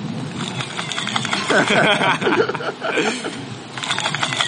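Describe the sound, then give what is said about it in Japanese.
Several high, whiny squeaks of plastic sliding while fishing in strong wind, rising and falling in pitch much like a cat's meow, moderately loud over a steady rustling, windy background. “ヒューヒュープラスックが滑てる音ですよ。”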